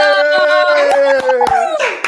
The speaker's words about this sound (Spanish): ¡Un aplauso!